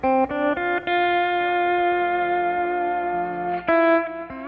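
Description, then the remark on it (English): A steel guitar plays a slow, sustained country melody, notes sliding and swelling into long held tones with a weeping, vocal quality like a crying human voice, heard alone without any talking. “In fact, the steel guitar is the signature sound of country because it's recognized as iconic of a crying human voice.”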